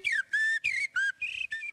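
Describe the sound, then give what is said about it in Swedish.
Blackbird song: a quick run of six clear, fluting whistled notes, each slightly swooping and separated by brief gaps, fairly loud with no talking. “Det är koltrasten.”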